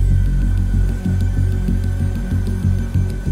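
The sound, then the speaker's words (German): A steady low hum from a video game loot chest, throbbing in a regular pulse about every third of a second with a faint constant tone above it, fairly loud and with no talking. “Ich höre irgendwo eine Kiste.”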